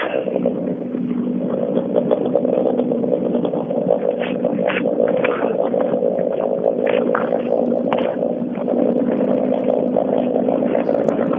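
Several of the fastest racing cars in the two-wheel-drive class drive up to the start, their engines idling and rumbling steadily, with a dense low drone and occasional revving bursts over about eleven seconds, no voices.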